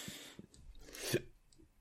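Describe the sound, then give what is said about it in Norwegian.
A single quick sneeze, a short breathy burst of hissing noise that peaks sharply and then fades, fairly soft, with no talking around it. “Prosit.”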